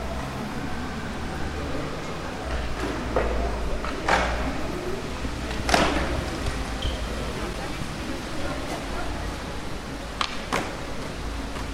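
Young people skateboarding not far away on a small square near the château de Savoie: a steady low rolling rumble of wheels broken by a few sharp board thuds and clacks, with faint background voices.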